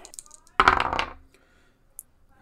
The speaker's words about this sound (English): Jeff has some dice prepared, so heck yeah, let's, let's roll them.